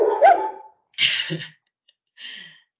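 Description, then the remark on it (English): Dogs bark in three short, rough bursts spaced about a second apart, the first more tonal and the later ones breathy and huffing, at moderate volume with no talking. “I think the dogs, dogs are objecting as well.”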